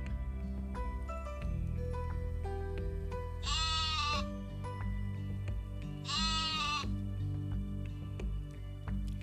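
Two loud, wavering sheep bleats, a few seconds apart, ring out over a steady bed of background music with no talking.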